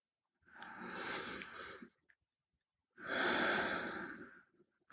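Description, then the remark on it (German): Two long, deep breaths taken together: a breathy inhale of about a second and a half, a short pause, then a full, airy exhale of similar length. No talking. “ja, lass uns kurz gemeinsam einatmen.”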